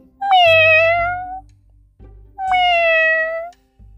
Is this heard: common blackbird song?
no